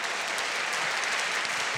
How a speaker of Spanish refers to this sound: Dele un fuerte aplauso aquí, que reina.